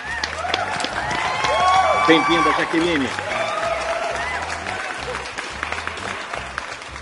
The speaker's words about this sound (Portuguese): está entre nós, senhoras e senhores, uma salva de palmas.